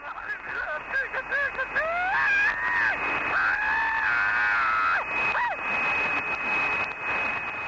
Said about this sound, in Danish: 40 minutter påhørte denne mand, som tidligere med sit radiopejleudstyr har lyttet med på flybortførelserne til både Entebbe og Mogadishu, hørte han en torteret passagers dødskrig fra cockpittet.